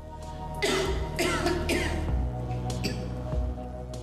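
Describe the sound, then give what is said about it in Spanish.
A person coughs three times in quick, harsh bursts, then lets out a couple of softer, shorter coughs. The sound is clear, with no talking. “La tos definitivamente es una lata, pero es solo uno de los síntomas.”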